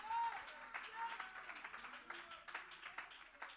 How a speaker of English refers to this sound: Oh, somebody ought to clap your hands and shout with a voice of triumph.